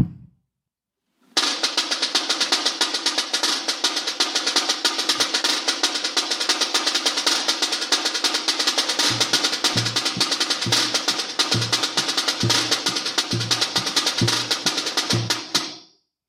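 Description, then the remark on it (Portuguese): A samba drum section plays a beat for Oxóssi, the patron of the drum section: a fast, dense rhythm of snares and rattles for about fourteen seconds, with deep, steady bass-drum thumps joining in the second half before it stops abruptly. “A gente bate uma batida para o Oxóssi que é, é o, é o padroeiro da bateria.”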